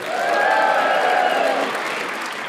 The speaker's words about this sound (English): Why did New Water get the biggest cheer? Very, very strange indeed.